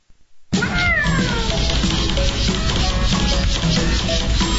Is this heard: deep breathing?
no